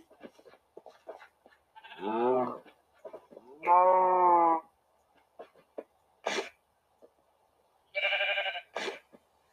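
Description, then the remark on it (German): Sheep and cows bleat and moo several times, a few drawn-out calls spaced apart, with short sharp noises and faint background sounds between them, as the sheep are being bred. “Dann vermehren wir hier auch, glaube ich, auch mal die, die Schafe an der Stelle.”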